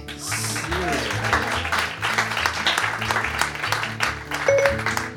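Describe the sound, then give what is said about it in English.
An audience at a technology show applauds Siri steadily for about five seconds, a dense, continuous clatter of many hands clapping at an even loudness, with some low tones sounding underneath. “please, everyone, give a big warm round of applause to Siri.”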